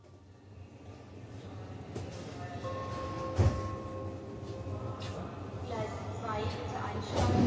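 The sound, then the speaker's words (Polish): A Berlin train pulls away and runs steadily, its low rumble slowly growing louder, with a whining tone, a single clunk midway, and a faint murmur of voices in the carriage. “Andrea z Eksem wsiadają do pociągu berlińskiego.”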